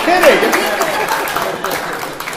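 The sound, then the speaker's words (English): A crowd applauds, a steady wash of many hands clapping at once, fairly loud and continuous, with a voice speaking briefly over the start. “Um, I should have you put your hands together for me.”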